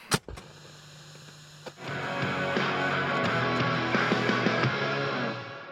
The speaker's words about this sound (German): ja, dann lass uns mal eine Kassette einlegen und ab dafür.